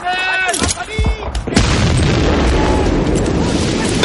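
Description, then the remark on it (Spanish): A 60 mm mortar shell, primed and thrown by hand without its tube, explodes with one sharp, loud blast, then a dense roar of rumbling debris that holds steady to the end. Brief tonal shouting or whining comes just before it. “Tiran otro y eliminan a un peligroso lanzagranadas.”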